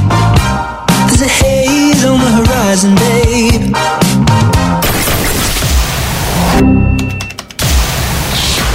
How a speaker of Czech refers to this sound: A tohle, co teď uslyšíte, je fresh song pro tento týden.